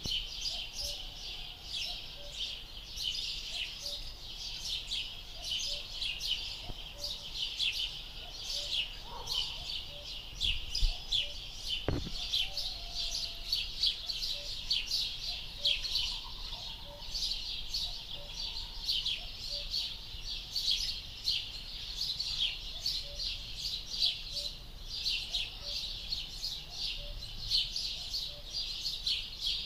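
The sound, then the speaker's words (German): Birdsong fills the air continuously, with many overlapping high chirps and trills from several birds, plus a few lower calls now and then, and no one speaking. “jetzt müsste man die eigentlich richtig schön ranholen können, die Vögel.”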